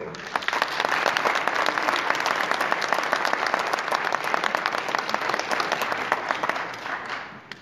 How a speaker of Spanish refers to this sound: Agradecer a la gran labor que realizaron en vida nuestros maestros Ángel victorito Muñoz y Jaime Guardia, eh, a quienes eh, rendimos homenaje en este festival y quisiera pedir para ellos un fuerte aplauso.